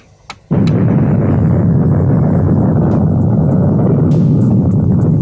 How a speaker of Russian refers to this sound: Взрыв выбросил из недр Земли более 10 миллионов кубометров грунта.